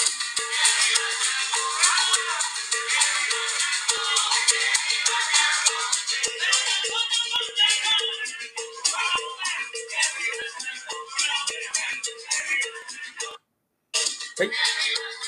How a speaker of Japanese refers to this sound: まずはですね、サルサあのバンドの音を聞いていただきて、声も入ります。